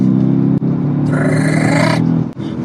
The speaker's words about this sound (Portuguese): Olha, ninguém faz o ronco de uma Mercedes AMG. É espetacular, é sensacional. Não tenho o que falar. A classe S acima de todos e S65 acima de todos.